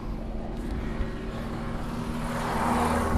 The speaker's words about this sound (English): I thought I was going a quiet way. And um, everyone with their loud utes think they're very cool.